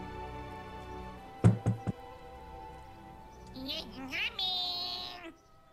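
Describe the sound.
Three quick, solid knocks on the front door of a house in the afternoon, fairly loud, over a quiet background; a brief higher-pitched, voice-like sound follows a couple of seconds later.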